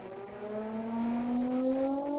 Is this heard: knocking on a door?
no